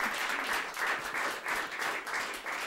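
An audience applauds steadily, a dense wash of many hands clapping with gentle swells in loudness and no voices over it.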